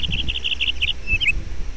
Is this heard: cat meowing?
no